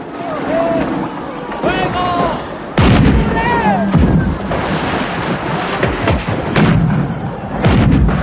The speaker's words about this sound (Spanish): En el río los coloniales disparan con una culebrina colocada sobre una canoa.